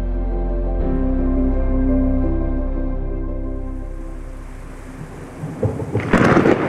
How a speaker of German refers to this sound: Ein heftiges Gewitter entlädt sich über Püsnik.